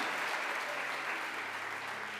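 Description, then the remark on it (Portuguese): A church audience claps steadily to give glory to God during a Portuguese-language sermon, many hands making a dense, crackling wash of applause that holds at an even level throughout with no voices standing out. “Quem está me entendendo, dá glória a Deus e aplaude a Ele com vontade, igreja.”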